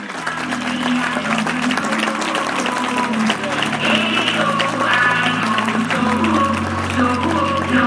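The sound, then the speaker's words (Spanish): An audience applauds steadily for about eight seconds as a tribute to all mothers, a dense, even wash of many hands clapping at a constant loud level, with a low hum of crowd voices underneath. “quiero aprovechar para darle de verdad un aplauso y toda mi admiración a todas las mamás por el tremendo esfuerzo que lleváis en los primeros años.”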